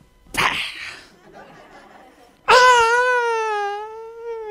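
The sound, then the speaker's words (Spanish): A voice imitates the cry of a newborn baby just after birth: a sharp breathy burst, a short pause, then one loud, drawn-out wail that wavers and slowly trails off, alone. “grita el bebé.”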